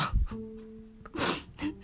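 A sharp, breathy sneeze bursts out after a few hesitant, voiced inhales, followed by a shorter puff of breath as it trails off.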